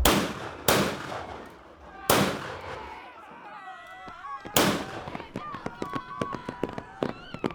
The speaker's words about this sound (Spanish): Nada más llegar a la altura del grupo de Becerra, los hermanos abren fuego y empieza el tiroteo.